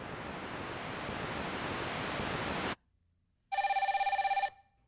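A loud hiss of static-like noise cuts off abruptly, and after a brief pause a telephone rings once, a single fast-trilling electronic bell burst about a second long, close and clear.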